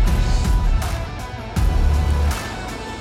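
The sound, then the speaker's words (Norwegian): Steady traffic rumble with several cars swishing past, one after another, right after school hours, their low engine drone rising and falling. No voices. “det er fullt av biler som kjører forbi oss, altså.”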